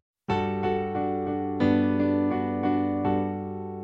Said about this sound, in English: So it goes between those two for a while, and then it kind of sort of progresses onwards to a G, which sounds like this.